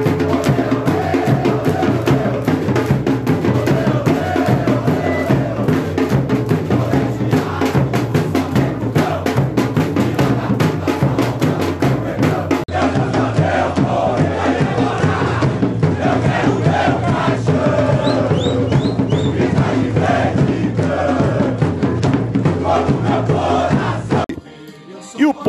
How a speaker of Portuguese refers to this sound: Ao chegar na portaria da sede administrativa do clube, gritaram palavras de ordem para a diretoria e cantaram o hino do clube.